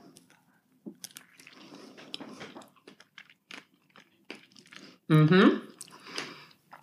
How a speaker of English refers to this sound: Oh, yeah. As I'm crunching in the microphone.